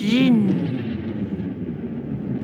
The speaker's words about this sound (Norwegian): Det var det var trykkbølgen ja. fra seismic chargen.